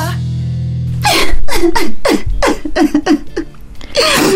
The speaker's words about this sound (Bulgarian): Мими, какво става? Защо плачеш?